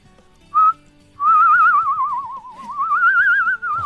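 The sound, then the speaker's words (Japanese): A human whistler produces an eerie, wavering tone with heavy vibrato, starting with a short note and then sliding slowly down and back up in a long, ghostly wail, clear. It is a whistled ghost effect, the kind used when a ghost appears, once requested for a spooky scene in a recording. “っていうなんかお化けっぽい幽霊が出てくる時の、はいはい、やってくれと言われたことがあります”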